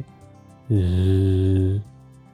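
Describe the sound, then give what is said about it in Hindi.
A loud buzz of busy bees' small, rapidly beating wings among yellow bell-shaped flowers, a steady low drone lasting about a second before cutting off, with a faint background hum on either side. “आपकी निगाह जाती है मधुमक्खियों पे कितनी व्यस्त हैं ये सारी की सारी बिल्कुल ध्यान भटकाए बगैर अपने छोटे छोटे पंखों को बहुत तेज़ी से हिलाते हुए”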